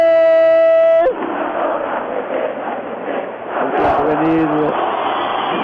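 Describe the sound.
Football fans chant "Vamos muchachos" in a stadium during a match, a loud, dense wash of many voices singing together that follows a brief steady tonal note at the start and holds strong to the end.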